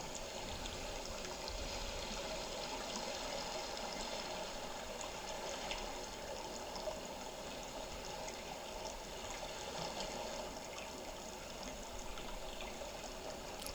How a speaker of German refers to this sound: Tief atmest du die frische Meeresluft in deine Lungen. Genieß das Meeresrauschen.